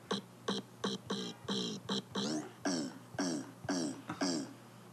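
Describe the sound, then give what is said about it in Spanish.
A voice, pitched down, shortened and raised in volume, imitates a drum, beating out about a dozen short, punchy hits in a steady rhythm, fairly loud, with no talking. “miren, por ejemplo, puedo hacer un sonido de, un tambor con mi voz, literal.”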